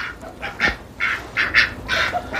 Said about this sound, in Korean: 아, 얘네들이 오리들이군요. 네, 오리 울음소리입니다.